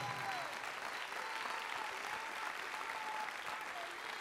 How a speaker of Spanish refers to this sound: Si usted le cree, déle el mejor aplauso al Señor en esta hora.